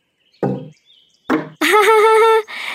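Two dull wooden thumps of a pestle (alu) striking a rice mortar (lesung), played as a musical instrument, spaced about a second apart, followed by a loud, sustained, warbling pitched tone.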